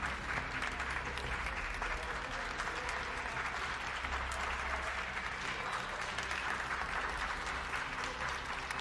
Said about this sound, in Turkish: Türkiye'de ilk Covid-19 vakasının açıklandığı Mart ayında alkışlarla göreve gönderilen doktorlar ve sağlık çalışanları emeklerinin karşılığını alamıyor artan iş yükünün altından kalkamıyor ve sorunların altında eziliyor.